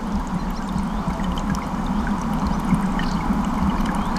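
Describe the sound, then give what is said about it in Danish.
A steady, continuous wash of flowing water from the wide, deep Gudenå river in late afternoon, flowing heavily through valleys and forest in a calm stretch, low and full-bodied, with faint trickling detail on top and no pauses or voices throughout. “Den flyder tungt fremad ind gennem dalene og skoven. Det er et roligt stryg.”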